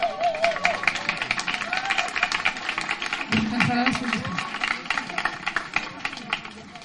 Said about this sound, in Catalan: un fort aplaudiment, sisplau.